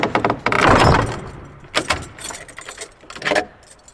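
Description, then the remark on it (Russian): A door slams shut with a heavy, loud bang and a brief rattling clatter, then two lighter knocks follow, with no voices present. “в рубрике «Контрольный звонок» вакансия неожиданно захлопнулась на наших глазах”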